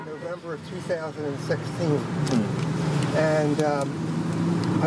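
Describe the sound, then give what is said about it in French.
A golf cart drives along in a place called The Villages with a steady low motor hum and road rumble, while people talk over it. “On commence ce podcast dans une voiture de golf. Oui, vous avez bien entendu, une voiture de golf”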